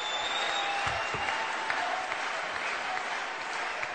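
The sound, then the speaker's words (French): An audience applauds steadily for several seconds, a dense, even wash of clapping hands that holds at a constant loud level without voices standing out, at a UPR political event, applauding a speaker after his testimony. “Vous pouvez encore l'applaudir très fort”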